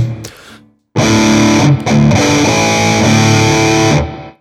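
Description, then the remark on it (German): Heavily distorted electric guitar, played through a distortion pedal into a Fender Twin amplifier, plays loud, sustained heavy-metal chords with a thick, saturated buzz. A short quieter lead-in comes first, and the guitar cuts off briefly before ringing on until a sudden stop. “kann auch mit einem Fender Twin jetzt Heavy Metal spielen. Für 49 Euro.”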